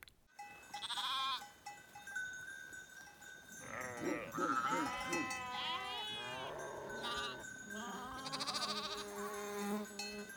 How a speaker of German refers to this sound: Auf dem karnischen Höhenweg befinden wir uns plötzlich mitten in den Wolken. Also eigentlich sind wir in einer Schafherde gelandet, aber auf dieser Seehöhe, so nahe dem Himmel, ist die Assoziation naheliegend.